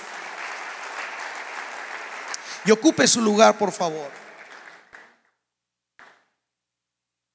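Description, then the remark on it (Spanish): An audience at a church service applauds loudly for Jesus after a prayer, a dense wash of many hands clapping that fades out around five seconds, while a man speaks briefly over it; a faint final clap follows after a pause. “Dele un aplauso fuerte a Jesús.”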